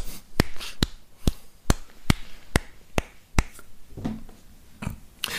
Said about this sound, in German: Ich freue mich schon auf unseren nächsten Musikexperten, der sich meldet und sagt, dass das ein 17 42 Takt war oder so, weil das waren weil, weil, du dich minimal verklatscht hast oder so.